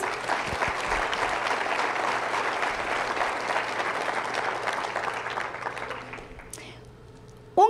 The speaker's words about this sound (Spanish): Démosle un aplauso a Jesús.